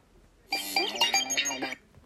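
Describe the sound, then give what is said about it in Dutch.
A short electronic text message notification tone on a phone, a jingle of bright, bouncy tones playing for just over a second, clear, with no talking over it. “Dat is wat je hoort als eh, ik een sms krijg of ehm, een bericht.”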